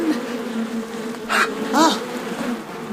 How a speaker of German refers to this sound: Es hat funktioniert. Sie schwärmen zurück in den Bienenkorb.